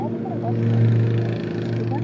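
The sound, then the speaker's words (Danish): A lawnmower engine drones steadily, a low buzzing hum with a rough, even pulse that swells slightly midway before settling back. Faint voices can be made out beneath it. “det vil i hvert fald være synd at læse op til plæneklipperen her.”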